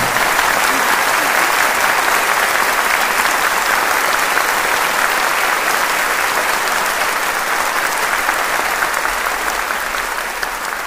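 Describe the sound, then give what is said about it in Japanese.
Sustained audience applause for Donbrothers and Kohei Higuchi, a dense, steady wash of many hands clapping at even loudness for about eleven seconds, with no voices standing out. “というわけで以上「ドンブラザーズを褒めまくる」でしたドンブラザーズと樋口浩平に大きな拍手をありがとうございました”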